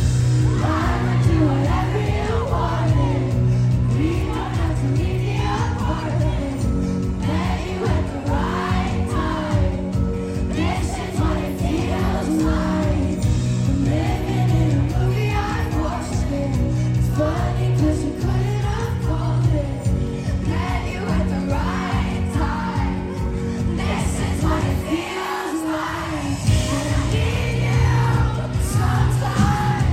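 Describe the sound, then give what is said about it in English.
A song performed live at a concert in an intimate setting, with steady music and singing blended into a loud, continuous crowd of yelling and cheering voices, briefly dipping near the end before swelling back. “But yeah, I feels like it's just such a special song to hear live.”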